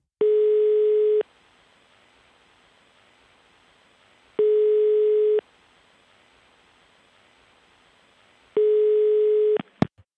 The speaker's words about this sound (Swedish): jag tänkte, är det lugnt om jag bara ringer honom en snabbis?